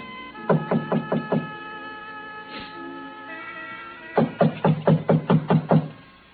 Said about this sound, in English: I tried the front door, but it was locked. I didn't think anyone would be there that late, but I knocked anyway.